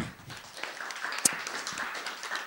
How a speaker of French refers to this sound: Merci, on l'applaudit encore.